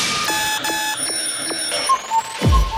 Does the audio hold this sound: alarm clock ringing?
yes